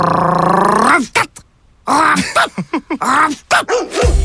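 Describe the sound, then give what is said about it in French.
A dog vocalizes as if talking: a long wavering whine, a short pause, then a run of choppy, pitch-bending grumbles and yips in a speech-like rhythm. “J'ai rêvé que le chien parlait.”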